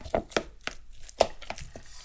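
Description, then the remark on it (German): Chopped wonton filling with an egg, Chinese rice wine, sesame oil and salt being stirred in a bowl: a series of irregular wet clacks and scrapes, about eight sharp knocks over two seconds with soft mushy sounds between them. No one speaks. “Dann schlage ich ein Ei rein, damit die Konsistenz mehr pappt. Und jetzt richtig gut umrühren.”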